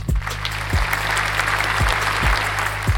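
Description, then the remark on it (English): Steady applause from a small group fills the whole moment, a dense patter of claps, with a low hum running underneath and a few soft thumps. “But can you applaud me?”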